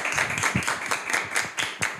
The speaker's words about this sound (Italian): Un applauso, io direi.